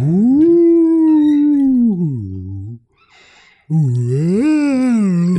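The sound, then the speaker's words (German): A microphone arm squeaks loudly in two long, whining glides that bend in pitch, separated by a brief near-silent pause, with no one talking. “Du quiefst dir mit deinem Mikrofonarm und ich wette es am Ende auf der Aufnahme gar nicht drauf.”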